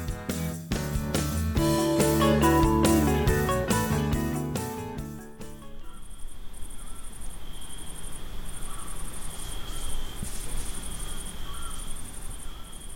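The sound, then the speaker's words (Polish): A short stretch of music gives way to a steady, shrill drone of cicadas chirping, continuous and unbroken, filling the background with no voices. “Cykady budziły, towarzyszyły, usypiały.”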